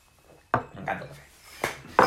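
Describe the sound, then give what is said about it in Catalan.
Coffee cups clink together in a toast: a few sharp, bright taps with short ringing tails, spaced unevenly over about two seconds, with faint murmuring between them. “Com sempre diem, comencem brindant, si us sembla bé, així que, senyors, un bon cafè que compartim.”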